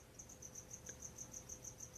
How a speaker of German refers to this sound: Hörst du die Grille im Hintergrund bei mir?